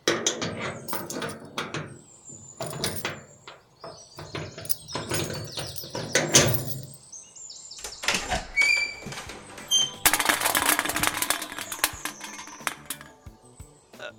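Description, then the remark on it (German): The door of Ernie's trailer is opened for police officers, letting out smoke and beer cans, with clattering handle and latch noises, a brief high creak partway through, and a busy rattle of knocks and scrapes. “Rauchschwaden und Bierdosen kommen den Beamten entgegen, als Ernie die Tür öffnet.”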